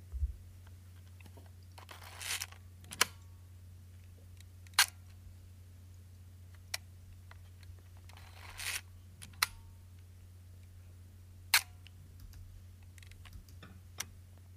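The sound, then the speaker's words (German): A small Aqua Optima 1035 film camera's shutter clicks repeatedly, with several sharp mechanical snaps and a couple of longer ratcheting winds spaced irregularly over a steady low hum, no voices. “Es handelt sich um eine Kamera, die ich bei der Wohnungsauflösung meiner Patentante in die Finger bekommen habe.”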